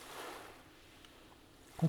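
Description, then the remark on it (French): A soft wave washes in on a sandy beach and swells briefly before fading into a gentle, hissing retreat, fairly quiet and steady, with a short bump of sound at the very end. “Assis sur le sable, tu regardes et écoutes les vagues qui essayent à chaque fois de te mouiller les pieds.”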